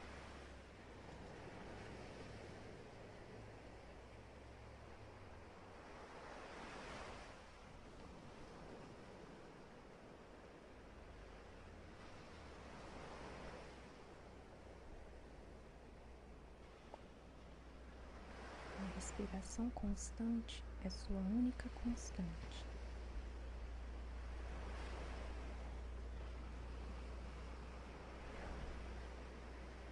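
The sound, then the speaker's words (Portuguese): Soft, steady wash of ocean surf rising and falling in slow swells beneath a calm voice speaking, with the waves forming a continuous, gentle background throughout. “Neste momento, foque apenas em sua respiração e nas ondas que vêm e que vão.”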